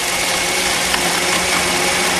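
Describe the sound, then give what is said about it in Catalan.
A loud electric blender whirs steadily, a dense motor drone with a faint hum that holds constant throughout the short stretch, with no talking over it; blending a daiquiri made with white sugar. “A veure el soroll d'ara. I batedora, sí, home.”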